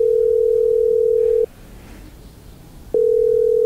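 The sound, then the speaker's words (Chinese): A phone call rings unanswered: a steady, low electronic ringback tone sounds for about a second and a half, pauses briefly, then starts again. No one speaks. “怎么不接电话呢？”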